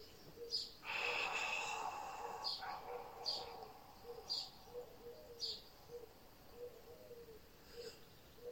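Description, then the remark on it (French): A single long, breathy whispered "A" sound on an exhalation during a guided breathing exercise with the arms opened, fairly strong, lasting about two seconds, then quiet with faint high chirps repeating steadily in the background. “On reste ici en faisant le son A chuchoté.”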